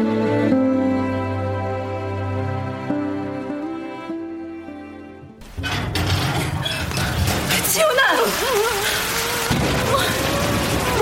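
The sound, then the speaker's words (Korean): Gentle sustained music plays, then cuts to a steady, dense hiss of falling rain that continues loudly to the end, with faint wavering tones drifting through it. “하는 거야 여기서? 비도 오는데.”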